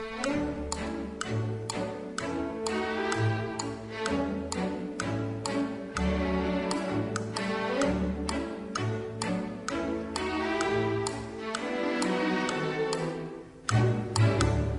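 A bouncy orchestral tune built around a steady, clock-like woodblock tick-tock, played alone at an even, fairly loud level, with a brief dip just before it resumes near the end.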